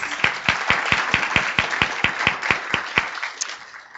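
Audience applause for a speaker who has just been introduced, with a steady wash of clapping and sharp, evenly spaced claps standing out in a quick regular rhythm, thinning and fading out over the last second.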